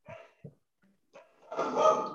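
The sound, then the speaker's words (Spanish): Excited female dogs bark in a few short, sharp bursts, then break into a louder, more sustained run of barking and yelping at the end, with no talking. “Vale, después, a ver que tengo a mis perras excitadas.”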